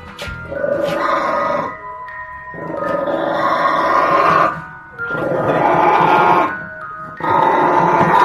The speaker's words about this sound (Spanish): Escuchen, eh, ¿qué ruidos hacía este perro? Ruidos raros cuando lo estaban bañando. Pon atención.